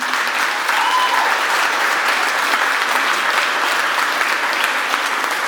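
An audience applauds steadily for several seconds to thank those who adopt and foster children in their area, a dense, even wash of many hands clapping at a constant loud level with no voices rising above it.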